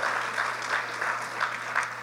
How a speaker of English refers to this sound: Would y'all clap for her, please? Amen.